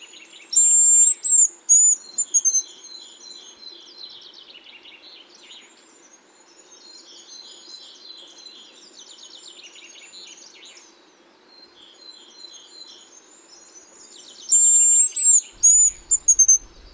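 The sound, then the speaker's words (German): A small grouse, a gallinaceous bird of the Raufußhühner (grouse family) about the size of a jackdaw, calling in dense Harz conifer forest in autumn with high, thin, piercing whistles, loud bursts at the start and end, and softer runs of short ticking notes in between. No one speaks. “Ist im Gegenteil relativ groß, also so groß wie eine Dole vielleicht. Ja, so ein, ist ein kleiner Hühnervogel. Also gehört zu den Raufußhühnern.”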